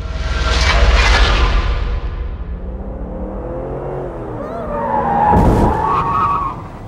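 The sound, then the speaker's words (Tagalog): A truck skids with loud, wavering tire squeals, then a sharp, forceful impact near the end as it runs over a woman outside a McDonald's store, followed by a brief ringing squeal that fades out. “Nako, nasagasaan yung babae ng truck.”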